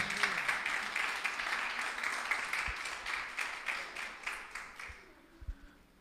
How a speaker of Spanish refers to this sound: Aplauso a Cristo, aleluya.